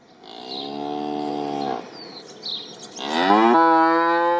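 A cow moos twice, loud: a long, steady low moo, a short pause, then a second, stronger moo that rises and holds to the end. No one speaks.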